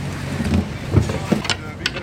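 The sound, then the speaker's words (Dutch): A lifeboat engine of nearly a thousand horsepower runs after being started from the engine room, a steady rumble broken by a few short knocks and faint, indistinct voices in the background. “Ik ga nou de machinekamer zodat we kunnen starten.”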